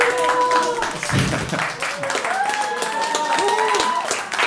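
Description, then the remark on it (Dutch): Sustained audience applause at a festival for the festival's organizer, a dense wash of many hands clapping at once, with cheering and whooping voices rising over it throughout. “Dames en heren, mag ik een heel hartelijk applaus voor”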